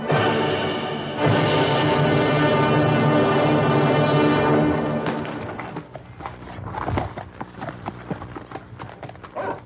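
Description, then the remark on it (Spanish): A steady, sustained musical drone fills the first half, then fades as a horse's hooves clip-clop in an uneven rhythm, moderately loud. “No te bajes de ese caballo, Tacha.”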